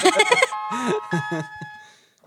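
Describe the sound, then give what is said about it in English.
A phone's Find My Phone alert ringtone chimes with steady, bright electronic tones that hold and fade out near the end, while a voice talks over the first part. “My advice would be follow the ringing sound.”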